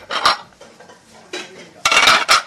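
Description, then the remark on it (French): Busy restaurant kitchen clatter of pots, pans and cutlery in the kitchen of the brasserie Le Florida at Châtelet-Les Halles, with sharp metallic clanks in bursts, heaviest near the end, over a low continuous background bustle. No one speaks. “Je viens d'arriver en cuisine, hein, vous l'entendez.”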